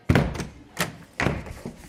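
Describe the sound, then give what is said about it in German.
A heavy, rumbling knock on a classroom door: four dull thuds in an uneven rhythm, fairly loud, each with a low, booming body and a short fade. “In dem Film in meinem Kopf hört man jetzt ein Klopfen an der Klassentür. Mehr so ein Rumpeln.”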